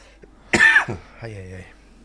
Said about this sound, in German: Vielleicht muss ich auch deswegen so husten.